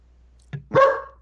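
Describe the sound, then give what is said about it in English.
A female dog gives a short, sharp yip followed by a fuller, louder bark with a tonal ring, with no one talking. “Sorry, my dog is barking.”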